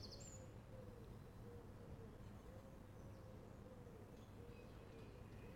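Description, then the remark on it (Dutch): A steady, distant highway roar fills the background under thick cloud cover while unseen small birds twitter faintly in brief, scattered chirps over it. No one speaks. “In de verte ruist een snelweg en daartussendoor allerlei gekwinkeleer van onzichtbare vogeltjes.”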